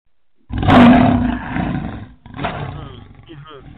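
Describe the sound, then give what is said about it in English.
A crowd of voices lets out a loud, sustained lion-like roar, swelling suddenly and fading, followed by a second shorter burst of roaring and scattered cries; people at a Christian gathering imitating a big cat, roaring for their power. “So what I need you to do right now, go ahead and roar.”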